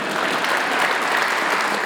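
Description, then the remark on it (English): A crowd claps steadily for a couple of seconds, a dense, even wash of applause with no voices over it. “Yeah, round of applause.”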